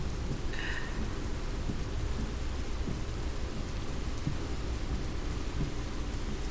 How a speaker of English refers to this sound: So here I am, out in the rain, making my way to the best store to get what I want.